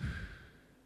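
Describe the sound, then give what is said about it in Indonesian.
A single slow breath pushed out through the mouth during a relaxation breathing exercise, soft and airy, strongest at the start and gradually fading over about a second. Quiet, with no talking. “Out hembuskan.”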